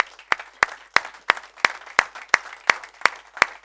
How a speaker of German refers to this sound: Und äh, wir wollen das mit einem kraftvollen Applaus tun. Helft mir ein bisschen, okay? Haben wir das bitte. Applaus